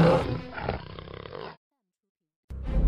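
Harsh, loud lion roars and snarls as Simba and a lioness fight fiercely, rumbling for about a second and a half, then stopping abruptly. After a short silence the growling starts again.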